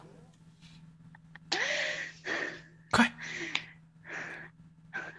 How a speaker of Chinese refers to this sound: 你能不能别在这喘气儿？干哈？这更受不了了！